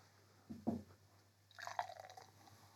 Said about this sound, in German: nicht gelernt, wie man Bier einschenkt. Doch, so, dass es gut klingt.